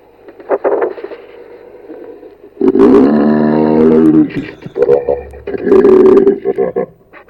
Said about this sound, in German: Das ist echt heftig. Das klingt abnormal, das ist doch eine Falle. Nein, keine Falle. Ein Elch.